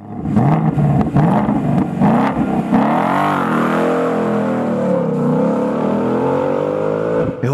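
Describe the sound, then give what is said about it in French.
A Ford Mustang's V8 engine roars loudly, revving in rising bursts before settling into a steady, throaty drone that holds for several seconds, with no voices. “entend justement le rugissement du V8 d'une Ford Mustang, la voiture qu'on a envie de louer aux États-Unis.”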